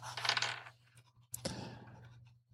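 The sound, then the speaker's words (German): Ingredient dice, re-rolled for aubergine and chili in a cooking dice game, clatter and tumble across a hard tabletop in two short bursts, the second beginning with a sharp knock, with a faint steady hum underneath. “Ich würde die Aubergine und die Chili jetzt nochmal würfeln, weil wir das eben schon hatten.”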